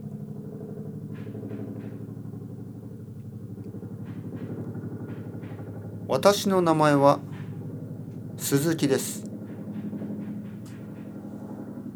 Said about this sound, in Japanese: ヘリコプターが飛んできました少しうるさくなってきました